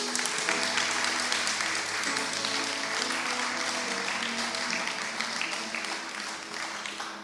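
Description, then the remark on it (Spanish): A church audience applauds God steadily for several seconds, dense clapping with a faint musical tone underneath, fading slightly toward the end. “Dale un aplauso a Dios.”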